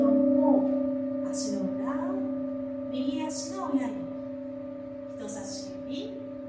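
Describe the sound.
A singing rin bowl rings with a steady, sustained tone that hums through the whole clip, its layered overtones holding evenly while a soft voice speaks calmly over it, guiding a lying-down yoga meditation for relaxation.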